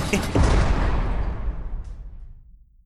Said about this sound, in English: Insert sound effect of prison doors closing.